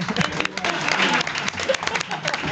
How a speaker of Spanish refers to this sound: y te vas con este aplauso que alargamos para acompañarte en tu vuelta a tu lugar.